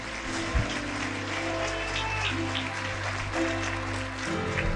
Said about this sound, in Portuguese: Se você crê, dá um glória a Deus por isso, irmão. Uou! Pode aplaudir a Jesus, querido.